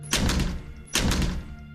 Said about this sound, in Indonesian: Suara dari arah dapur aku dengar dengan sangat jelas seperti ada orang yang membuka atau menutup pintu dapur.